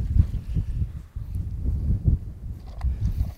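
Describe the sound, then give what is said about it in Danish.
Wind gusts across open water, a deep, rumbling buffeting that swells and eases continuously against the microphone, with no voices. “det er fedt det der med, når vinden lige lægger sig en lille smule, ikke?”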